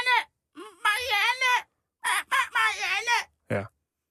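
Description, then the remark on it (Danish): Someone imitates a squawking parrot, letting out a run of loud, harsh, warbling screeches in several bursts, ending with one short, sharp squawk. “Så hver gang hun prøver på et eller andet, så starter papegøjen.”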